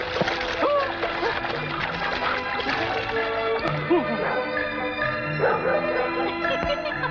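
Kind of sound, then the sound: animal, dog barking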